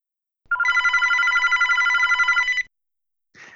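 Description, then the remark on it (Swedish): A telephone rings in one sustained two-tone burst lasting about two seconds, loud, followed by silence and a brief faint click at the end. “Det är därför jag ringer dig.”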